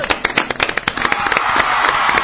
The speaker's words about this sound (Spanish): ¡Aplausos para todos ellos!